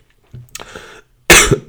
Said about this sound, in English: Um, excuse me, I'm about to cough. This is not corona, but no, it is. Maybe it is.